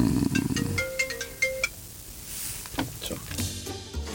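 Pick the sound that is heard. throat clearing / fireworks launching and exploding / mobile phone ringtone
mobile phone ringtone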